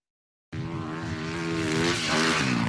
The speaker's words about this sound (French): Un simple entraînement de moto, aux apparences pourtant trompeuses.